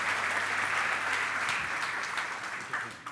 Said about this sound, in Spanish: Un aplauso para él.